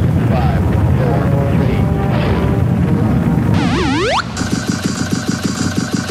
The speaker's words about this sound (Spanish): Preparados para despegar. Todos a bordo. 12, 11, 10, 9, 8, ignition sequence started.